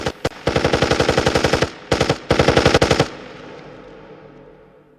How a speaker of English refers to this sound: And as soon as they had passed, I open fire. I killed them all, and they fell without a sound in front of that gun.